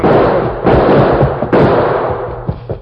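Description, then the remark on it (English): Gunshots in a shootout as the Lone Ranger, running, fires toward men across the street: several sharp, loud cracks at uneven intervals, each followed by a rumbling, echoing tail, with two quicker softer shots near the end and no voices. “Then he was relieved to see the Lone Ranger running toward him, his gun spitting lead toward the men across the street.”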